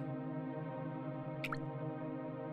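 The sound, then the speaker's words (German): A quick pair of water drops in a cave plinks once, midway through, falling onto the water surface of a sinter pool, over a steady low, humming background that fills the whole stretch. No voices. “Kannst du die Tropfen fallen hören?”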